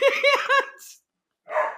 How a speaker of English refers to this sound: Sorry, loud oh dogs.